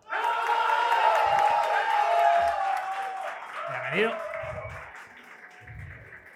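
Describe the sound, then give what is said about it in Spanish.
A crowd applauds and cheers in a loud, steady wash of clapping that lasts throughout, with a rising whoop midway and shouting voices mixed into the noise. “Y a mí no me aplaudió nadie,”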